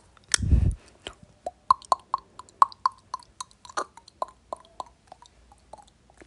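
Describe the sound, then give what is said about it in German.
Mouth beatboxing: a deep, breathy thump opens, followed by a quick, steady run of crisp clicks and popping beats with a slight pitched tone, played alone without any talking. “Ja, das äh, ist Beatboxen.”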